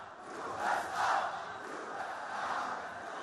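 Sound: crowd cheering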